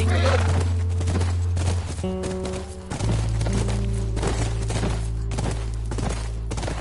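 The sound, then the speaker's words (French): A horse whinnies amid steady hoofbeats, with a loud, sustained low rumble running underneath throughout. “C'est notre cheval.”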